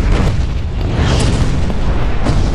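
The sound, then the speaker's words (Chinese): A heavy, booming crash as shelf C, holding specimen jars, topples and slams into shelf D. A loud low rumble lasts throughout, with a few sharper impacts breaking through, and there are no voices. “转身就往回跑，这个时候 C 架子已经倾倒并砸向了大雄旁边的 D 架子。”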